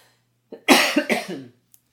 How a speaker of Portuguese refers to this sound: Peraí que eu vou dar uma tossida, não é Covid não, tá, gente? Peraí.